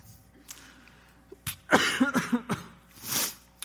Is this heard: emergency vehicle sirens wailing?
no